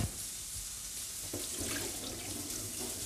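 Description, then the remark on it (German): Water is poured off rice in a bowl, running and splashing steadily into a sink, a continuous pouring sound with a brief knock partway through, with no voices. “Reis bleibt in der Schüssel, Wasser rinnt raus.”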